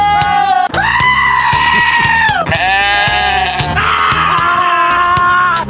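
A goat bleats loudly in three long, wavering cries, one right after another, each strained and nasal like a drawn-out scream, with no other sounds around it.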